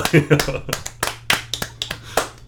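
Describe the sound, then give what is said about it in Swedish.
An inserted applause sound effect: scattered hand claps, about a dozen sharp, crisp smacks in an uneven rhythm, with a voice murmuring faintly underneath at the start and a low steady hum throughout. “Det är nu du ska lägga in en sån här applåd”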